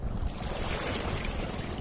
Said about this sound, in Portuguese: É, tá passando um barco aqui, eu vou esperar eles.